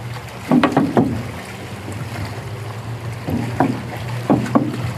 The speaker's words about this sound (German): Ja, aber es war, ich weiß nicht, ob man das alles versteht jetzt wegen dem Rauschen und den Wellen und dem Meer.